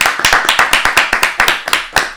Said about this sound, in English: clap it up for me.